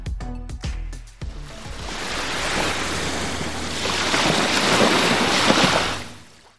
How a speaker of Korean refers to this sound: 아, 짧네. 사실 웬만한 여름 노래는 다 들어가 있는 파도 소리인데 여러분 요것만 듣고는 잘 모르시겠죠.